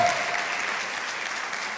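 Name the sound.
audience applauding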